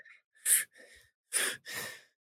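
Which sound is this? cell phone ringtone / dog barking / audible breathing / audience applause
audible breathing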